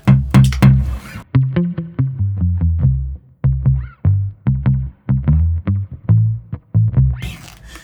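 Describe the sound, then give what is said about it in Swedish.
A spring reverb effect on a run of rhythmic, punchy synth or bass notes, each short hit trailing a brief metallic, splashy tail. It plays alone and fairly loud, with no talking. “Ja, med, med, vad är det för reverb här?”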